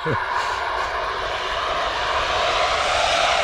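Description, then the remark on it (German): A small part of a freight train rolling past on S-Bahn tracks, a dense, steady roar with a hissy top end that holds at constant loudness for several seconds, with a brief voice fragment at the very start. “Also wir nähern uns den S-Bahn-Gleisen und das war keine ja, S-Bahn gerade, sondern ein, Güterzug.”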